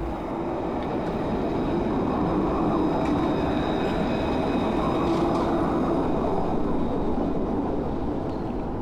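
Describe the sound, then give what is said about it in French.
A tram rolls past right in front of the listener as it arrives at the station, a steady, heavy rumble of wheels on rails with a thin metallic whine above it, holding loud and even throughout with no voices. “Ben là on entend justement passer un, tram là, qui est en, train d'arriver à la gare.”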